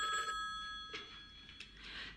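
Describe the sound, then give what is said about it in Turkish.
A telephone rings once in a short, bright electronic burst, then the ring cuts off, leaving a soft hiss with a few faint clicks. No one speaks. “Saatler sonra bir telefon geliyordu.”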